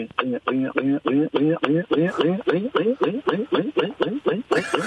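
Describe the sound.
A voice imitates water pouring from a kettle as a sound impression, making a fast, steady run of rising glugging pulses that speed up slightly as the vessel seems to fill. It is fairly loud.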